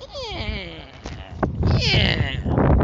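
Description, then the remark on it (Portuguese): A voice imitates a motorcycle that will not start, its starter cranking on a dying battery, making strained, wavering squealing and groaning sounds in loud bursts for a few seconds, likened to a pig being slaughtered. “Tentei dar partida né, nela até a bateria fazer, fazer som de arrear.”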